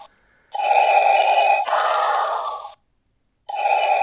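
Mechanical, hissing respirator breathing from a small electronic novelty figure bottle opener as a beer bottle is opened: a long filtered inhale followed by a raspy exhale, a pause, then the next inhale starting, loud with no talking.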